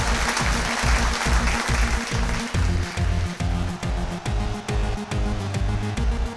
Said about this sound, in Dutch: Mag ik een applaus voor onze professor van vanavond?